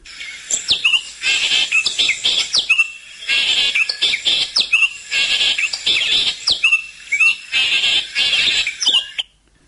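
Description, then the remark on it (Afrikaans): A common fiscal shrike calls loudly in repeated bursts of harsh, scratchy chattering mixed with sharp whistled notes, in three or four phrases separated by brief pauses. “Maar sê sy toe besluit meneer Jan Viskaal en hier is hy.”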